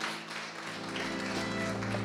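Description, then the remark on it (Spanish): A church audience applauds the Lord after a prayer, a dense, steady wash of many hands clapping that holds at an even level, with a faint low hum running underneath. “Por favor, den un amén y den un aplauso al Señor porque este momento es importante.”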